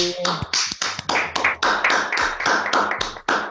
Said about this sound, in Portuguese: Vamos soltar a música ah, e você vai... merece uma salva de palmas aí.